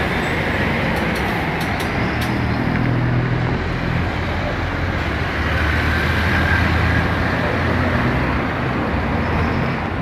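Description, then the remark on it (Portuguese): A bus rumbles through traffic, a steady, loud low engine drone with road noise filling the whole stretch and no voices. “E já que estamos falando de ônibus, vamos para um terminal.”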